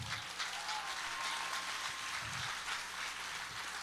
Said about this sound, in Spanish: Ese aplauso es para Dios.